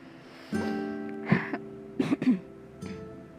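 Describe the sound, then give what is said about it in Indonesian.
A person clears their throat and then coughs a few times in quick, short bursts, with no talking. “sorry, batuk dulu.”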